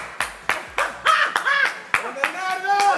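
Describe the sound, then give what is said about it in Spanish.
A single person, a male paying attention to the program, claps his hands, about nine sharp claps at an uneven pace, with voices and tonal vocal sounds continuing underneath between the claps. “En realidad, está atento al programa, pero él aplaude.”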